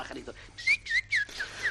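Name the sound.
pet birds chirping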